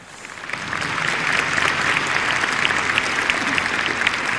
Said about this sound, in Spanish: Un aplauso a ellos, por favor.